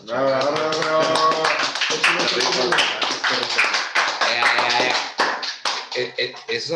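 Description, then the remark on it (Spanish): Audience applause, a steady patter of many hands clapping that runs under loud overlapping voices for the whole stretch, easing slightly near the end. “ah, los aplausos, ¿eh?”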